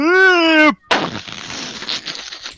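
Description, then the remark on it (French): A short sustained tonal cry cuts off, then a loud explosion sound effect of a vampire exploding bursts out and trails into about two seconds of crackling, rumbling noise. “Le vampire explose.”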